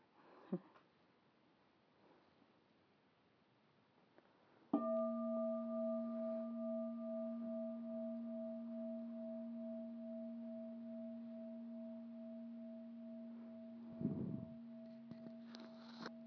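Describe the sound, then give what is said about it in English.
A bell is struck once and keeps ringing with a steady, wavering hum that fades only slightly over about ten seconds, fairly loud. “maybe I'll have Bob give us a bell”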